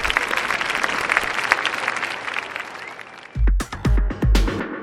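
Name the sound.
applause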